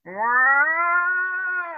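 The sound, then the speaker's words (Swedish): A person's voice imitates cats caterwauling with one long, drawn-out wail that rises at the start, then holds steady and loud for nearly two seconds, with no other talk. “Jävla katter som lät otroligt konstigt.”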